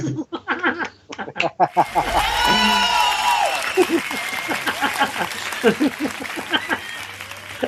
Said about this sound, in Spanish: Es buenísimo, un aplauso, mano, por Dios.